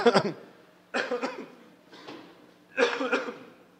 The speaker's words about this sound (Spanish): Fíjense que ya estoy mejor, ¿eh? Aunque sigo tosiendo, estoy mejor.